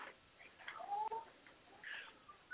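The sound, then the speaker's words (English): Pet birds chirp and squawk softly in the background, a scattering of short, high calls spread across a couple of seconds with no one talking. “And yeah, sorry, pony birds are in the background. They say hello.”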